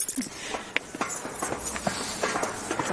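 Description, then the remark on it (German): Quick, evenly paced footsteps of people walking briskly up the outdoor steps to an observatory in very cold weather, each step a crisp knock against a steady background hiss, moderately loud. “jetzt gehen wir die Stufen hoch zur Sternwarte. Zügigen Schrittes, weil es ist doch sehr kalt.”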